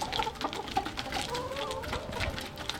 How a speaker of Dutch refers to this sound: Oh, kip, kip, kip.